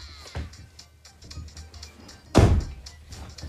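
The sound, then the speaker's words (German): A person shuts their door with a solid thud after some quieter shuffling and a faint earlier knock, then low background noise trails off afterward. “Okay, ich mach kurz meine Tür zu.”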